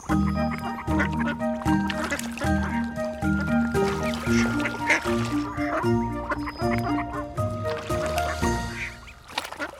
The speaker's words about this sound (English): Some nice little ducks swimming in the canal in front of us.